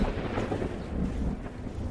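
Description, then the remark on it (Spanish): A low, continuous rumble of thunder from an approaching storm rolls steadily throughout, deep and fairly loud, with a faint wash of rain or wind noise mixed in and no voices. “Hay que apresurarnos. Se viene una tormenta.”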